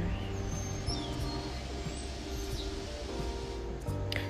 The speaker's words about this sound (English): yeah that's what it sounds like all them birds and trucks all together that's what it sounds like